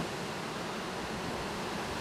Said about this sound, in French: avec le ruisseau dans notre dos, qui fait toujours ces bruits d'eau qui coulent.